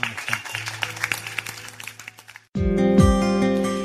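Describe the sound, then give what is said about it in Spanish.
A church audience claps and applauds themselves for a couple of seconds, a dense wash of many hands that fades slightly, before loud music cuts in abruptly. “Deseo un aplauso a ustedes mismos.”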